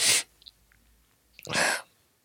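Someone crying quietly: two sharp, wet sniffling breaths about a second and a half apart, with near silence between them and no talking.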